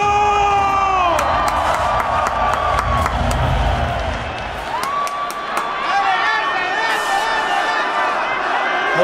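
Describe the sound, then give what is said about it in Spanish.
A loud crowd cheers and shouts continuously as the rappers are welcomed onto the stage to perform rhymes, with whoops and high-pitched yells rising over a dense roar of applause and voices that holds steady for the whole stretch. “Quiero que reciban como se merece a ….”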